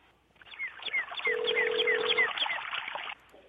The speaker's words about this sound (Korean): 아, 5467님 한번 전화 한번 걸어보겠습니다.